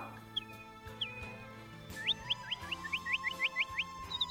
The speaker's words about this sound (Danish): Den lille kokkepige sætter sig og kigger på nattergalen. Den synger så smukt for hende.